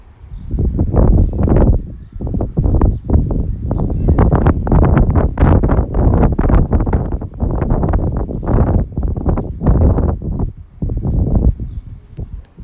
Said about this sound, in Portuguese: Ora, vou-me calar um bocadinho, vocês vão ter, vou, vou, vou deixar isto de soar, a ver se vocês conseguem perceber mais ou menos aí eh, eh, o contexto do vento e não sei o que, vou-me calar um bocadinho.